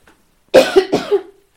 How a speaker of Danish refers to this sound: Øhm, undskyld, jeg skal lige hoste.